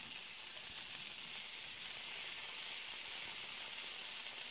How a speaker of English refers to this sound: The closer you get to the kitchen, you begin to hear one of the greatest sounds ever produced. That that sausage and bacon frying in that pan.